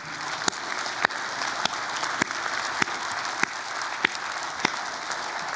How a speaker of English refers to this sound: Can we take a minute and just give our moms a round of applause?